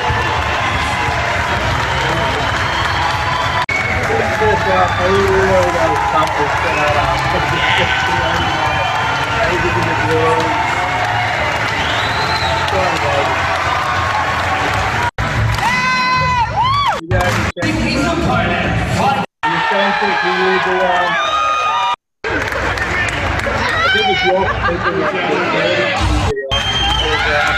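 A loud, dense crowd cheers and chatters throughout, with one person's raised, strained screams and yells cutting through the roar, growing more prominent and broken up in the second half.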